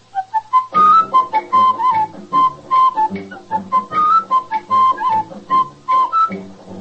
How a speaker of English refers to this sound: That whistling man